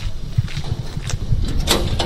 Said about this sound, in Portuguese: batemos aqui à porta, ninguém acorde.